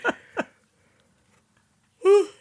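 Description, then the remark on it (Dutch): A drawn-out voiced yawn rises near the end after a quiet pause, preceded by two short breathy exhalations at the start. “sorry, ik moet heel erg gapen.”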